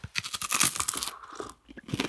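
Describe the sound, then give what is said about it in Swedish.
Loud, dry crunching as someone bites into chocolate-covered rice cakes, a rapid series of brittle cracks followed by a brief pause and a few more chewing crunches, with no talking. “Det finns här eh, chokladöverdragna riskakor Jaha.”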